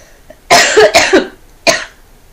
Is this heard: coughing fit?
yes